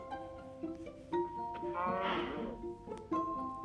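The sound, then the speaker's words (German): A single drawn-out cow moo from a video game, heard while the player seeks cows for leather, swells up over steady background music and a few soft clicks, moderately loud. “Ich brauche Kühe, damit ich mir eine volle Lederrüstung machen kann. Das vorne ist eine Kuh.”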